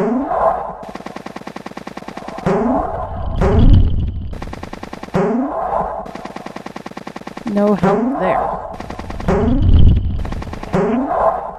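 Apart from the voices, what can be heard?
video game cannon firing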